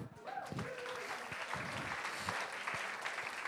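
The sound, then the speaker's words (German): A church audience applauds steadily, a dense wash of clapping that holds at an even level throughout, with a few scattered voices calling out beneath it. “Und die ganze Gemeinde sage: Amen, Halleluja. Applaus.”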